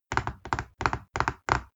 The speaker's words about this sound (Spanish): Entonces, algo que me saca, por ejemplo, en esos momentos es cuando la gente se pone a tamborilear los, los, dedos en la mesa